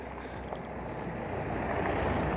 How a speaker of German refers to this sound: Und ja, jetzt äh, kommt hier Gegenverkehr in Form eines Autos. Ist egal, ich werde einfach weitersprechen. Also, äh, ja, machen wir bitte den Fernlicht aus.